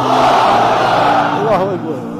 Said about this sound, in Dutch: En dan krijg je dus uh, eh, 10.000 man of zo, die dan met z'n allen enorm hard daar zitten te roepen. Laten we even horen.